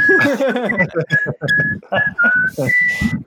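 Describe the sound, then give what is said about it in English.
Someone whistles a lazy, elevator-music-style tune: a string of steady, held mid-pitched notes with short gaps, over loud overlapping voices that hum and chatter underneath. “Meanwhile, like, Krobin's in the elevator, and it's just like. Do, do, do.”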